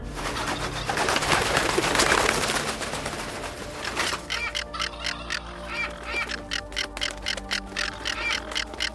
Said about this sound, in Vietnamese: bầy chim sao xuống, kêu loạn xạ.